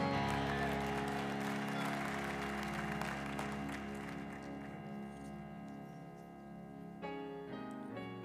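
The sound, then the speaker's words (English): An audience claps for the Lord after a morning prayer, steady applause over sustained organ chords, loud at first and gradually thinning out, before a fresh chord rings out near the end. “Come on, give up the Lord one more time.”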